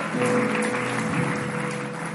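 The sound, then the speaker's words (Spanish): A crowd applauds the Lord steadily and loudly, a dense wash of clapping from many hands that holds at an even level throughout, with faint low tones underneath. “Alguien tiene que darle un fuerte aplauso al Señor.”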